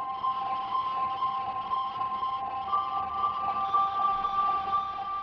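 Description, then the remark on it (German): A sustained piano tone, picked up by microphones and fed through a guitar pedalboard into a dark guitar distortion effect called Space, hums steadily without pause, its dark, buzzing overtones smeared into a continuous drone at moderate volume, with no voices. “Diese Verzerrung, die in diesem Sound hörbar ist, das ist ein Effekt, der heißt Space. Das ist so ein dunkler Gitarren-Distortion eigentlich.”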